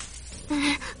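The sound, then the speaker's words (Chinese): A single harsh, raspy crow caw lasting under a second, fairly loud and hoarse, with a faint hiss around it and no talking. “听着乌鸦凄惨的叫声，有些小伙伴忍不住了，纷纷出声想要回家。”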